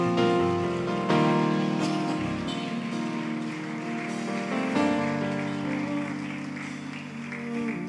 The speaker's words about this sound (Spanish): Alguien que aplauda. Aleluya.